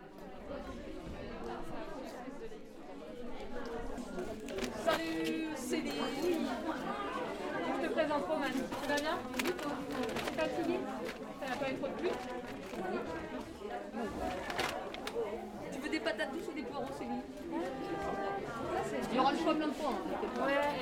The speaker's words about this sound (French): je vous propose d'écouter une petite sonographie de notre retour de marché de euh, jeudi dernier